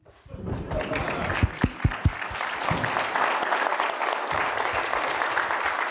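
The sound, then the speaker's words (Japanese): An audience at a talk breaks into sustained applause for the speaker that swells quickly and holds steady, with a few sharper, louder claps standing out early on, lasting several seconds. “いや、今拍手をいただいてありがとうございます。”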